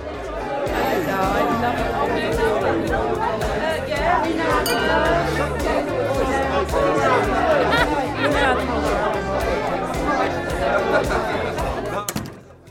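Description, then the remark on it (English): A dense crowd of guests at a boutique's opening chatters all at once, a steady indoor babble with glasses clinking here and there throughout, no single voice standing out. “Before I knew it, the place was packed with guests for the opening.”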